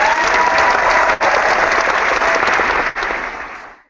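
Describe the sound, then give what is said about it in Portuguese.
Sustained applause from a crowd for the series The Lottery, dense and steady for several seconds with two brief dips, then tapering off at the end; no one speaks over it. “Então vamos dar pa palmas para The Lottery.”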